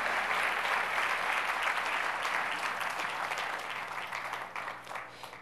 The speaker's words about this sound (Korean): 우리 한번 박수 한번 해주시기 바랍니다.